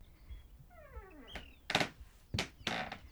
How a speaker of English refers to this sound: The door opens, and footsteps traipse across the creaky floorboards.